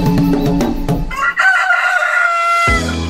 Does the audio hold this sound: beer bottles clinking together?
no